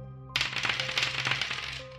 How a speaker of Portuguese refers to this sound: Rola um dado cada um.